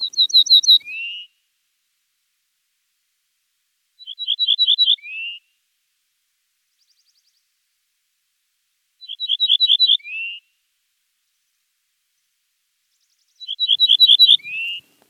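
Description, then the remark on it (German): Ortolan bunting song: four short phrases a few seconds apart, each a run of several clear, high repeated notes ending in a lower, slurred note. No voices, nothing else in the background. “So klingt er, der Ortolan.”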